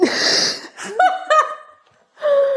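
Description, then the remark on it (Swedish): A single sharp sneeze bursts out, followed by a few short voiced sounds like laughter, a brief pause, and then another drawn-out vocal sound. “Nyser jag. Drar du en nys på det?”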